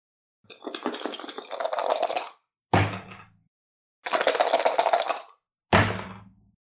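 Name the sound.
dice rolling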